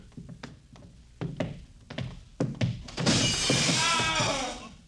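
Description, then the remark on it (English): Several sharp, hollow thunks land unevenly, then a loud burst of photographic glass plates smashing in an observatory crashes in and rings on for nearly two seconds, bright. “The photographic plates. They're all smashed.”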